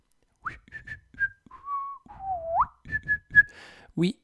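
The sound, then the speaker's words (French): A person whistles a short, casual tune, with quick chirpy notes, a few held and sliding pitches, and a final rising note, over soft breathy sounds. “Oui, oui, j'ai toujours tendance à, siffler quand, quand, je fais comme si de rien n'était.”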